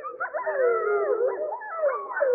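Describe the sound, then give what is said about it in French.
A wolf pack with pups howls in chorus, several long wavering voices overlapping, with higher, thinner yips and howls from the pups woven through the steady sound. “une meute avec des louveteaux qu'on peut entendre qui sont beaucoup plus aigus.”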